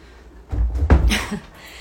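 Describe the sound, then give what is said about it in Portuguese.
A door being opened for a meowing pet cat named Maia: a brief clunk of the latch followed by a soft swish and rattle as it swings, lasting about a second in quiet. “Peraí que eu tenho que abrir a porta para minha gata aqui.”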